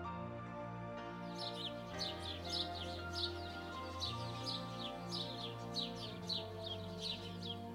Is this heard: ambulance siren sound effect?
no